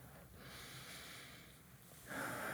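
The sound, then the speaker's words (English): A person exhales audibly through the nose, a deliberate snort-like breath given as a hint that the answer is breathing, with a sharper, louder puff of air toward the end and no talking. “was it breathing? yeah.”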